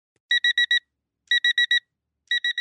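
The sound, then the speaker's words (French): A phone alarm goes off at 9:30 in the morning, beeping in quick bursts of four bright electronic tones, the pattern repeating steadily with short pauses between bursts, while someone fumbles to switch it off. It's clear, with no voices. “sa main tâtonne, cherchant à couper l'alarme de son téléphone. Son bip bip bip ne suffit pas à lui procurer son regain d'énergie habituel.”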